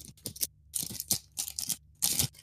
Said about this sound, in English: so I thought it'd be best if we broke out some paper magic cards. Let me see if the mic picks this up. You get that? Yeah, that's a sound I haven't through? heard in quite a while. uh yeah, listen to that. Listen to that pack.